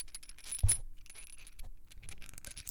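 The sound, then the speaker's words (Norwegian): Small metal screws, fittings for attaching a bicycle kickstand, ordered online, rattle and clink inside a package, a scattered jingle of light metallic ticks with one sharper knock early on, with no voices. “Er det skrue med washer?”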